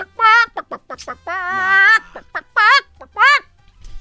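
A chicken that wandered up to the Pentagon clucks in quick bursts, then lets out a long, wavering squawk, followed by a few more loud clucks. No one is talking.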